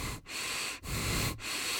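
Heavy, ragged breathing of a man bleeding from the arm, loud, with quick rasping breaths in a steady, labored rhythm and only brief pauses between them; white vapor comes out with each breath. No one speaks.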